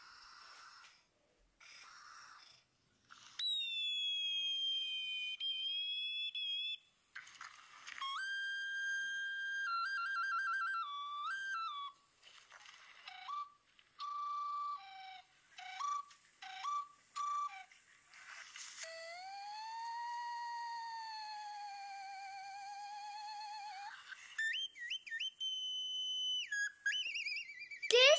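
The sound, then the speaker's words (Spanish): Shrill whistles blown by street vendors offering their goods at the edge of an avenue sound in a long series of bursts, some held steady and others warbling or sliding in pitch, overlapping loudly with no voices. “Ah, son los silbatos que están ofreciendo los comerciantes a la orilla de la avenida.”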